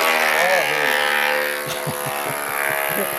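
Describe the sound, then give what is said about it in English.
Loud, continuous drilling drones steadily throughout, a buzzing mechanical whine layered with humming overtones, while muffled voices murmur beneath it in the second half. “I wonder, he's gonna think that I'm asking him, he's gonna think that I'm like disturbed by the drilling, but I'm not.”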